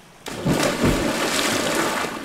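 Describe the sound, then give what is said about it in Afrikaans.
A sudden splash as an animal slips from the bank into a river, followed by a couple of seconds of sloshing, gurgling water. Fairly loud, with no voices. “Hy steek sy een poot in die koel water en glimlag breed. Toe glip hy in die rivier in.”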